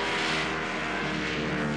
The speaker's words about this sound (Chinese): 没错，现在声音很清楚了，是雪地越野车的引擎声。搜查队找过来了。